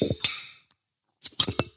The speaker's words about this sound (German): Kannst du mein Wasser auch aufmachen? Ich durfte meine Wasserflasche nicht öffnen, bevor wir hier nicht den Podcast gestartet haben,